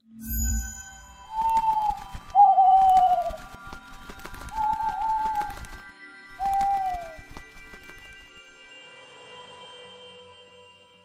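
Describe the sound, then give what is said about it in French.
Four soft, mellow cooing calls from aviary birds rise and fall one after another, with faint scattered chirps and clicks in the background and no talking. “Et sans plus attendre, passons à la volière.”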